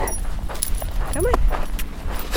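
A dog being walked by a neighbor passes on a desert trail on an early fall evening as the sun drops below the mountains. It lets out a brief high whine amid light jingling of collar tags, over a steady low background rumble.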